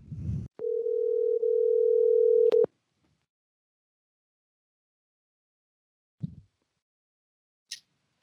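A phone line ringing on an outgoing call: one steady two-second ringback tone, loud and clean, followed by silence and a couple of soft clicks as the line picks up.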